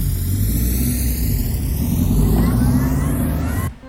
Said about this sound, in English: piled into a nearby hovercar, and began to tear away from the scene of their dastardly crime just as the patrol vehicles rounded the corner.